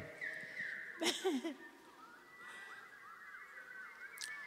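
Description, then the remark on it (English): Several voices imitate a bird's call with warbling, squawking cries that overlap, including one loud, harsh burst early on, followed by softer wavering calls that trail off. “So let's pretend to be the bird who is suffering about not being heard when he tries to help.”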